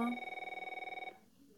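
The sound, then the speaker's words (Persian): A telephone bell rings in a rapid, fluttering trill for about a second, bright, then cuts off into quiet room tone. “زنگ میخورد”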